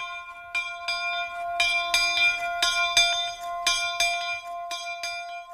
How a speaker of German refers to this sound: Zuerst ist es noch streng gegangen, aber schon beim dritten Mal hat die Glocke einisch angeschlagen. Und dann hat es geläutet. Mitten in der Nacht, am Viertel vor zwölf, hat es vom Kappelenturm oben runter übers Dorf geläutet, wie wild.